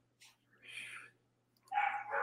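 Dogs barking in short bursts, a few sharp yappy barks separated by brief pauses, moderately loud, with a faint steady hum underneath.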